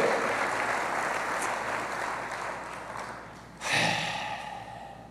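An audience applauds steadily for the King, God, a dense wash of clapping that surges louder again near the end, with a few breathy cheers mixed in and no speech.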